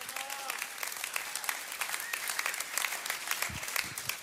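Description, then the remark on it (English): An audience at a sermon claps steadily throughout, a dense crackle of many hands, while scattered voices call out amen and praise over it, one near the start standing out clearly. “Can I hear some sort of amen or praise?”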